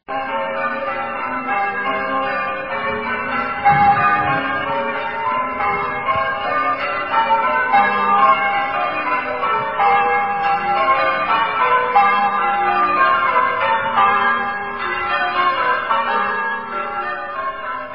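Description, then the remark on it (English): The church bells of Allesley church, recorded at a bell ringing rehearsal, peal continuously in a dense, overlapping cascade of ringing tones, steady and fairly loud throughout, with no voices present. “That's the sound of Allesley church bells, which I recorded at a bell ringing rehearsal for Outlook.”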